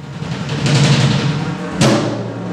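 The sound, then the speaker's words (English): Dense, roaring crowd noise fills an arena during a wrestling match staged by New York-based artist Sean L.C. Leonardo during the Radical Presence exhibition, with a loud thud of bodies hitting the mat near the end as cheering continues throughout. “Here's the sound of the arena a wrestling match that New York based artist Sean L.C.”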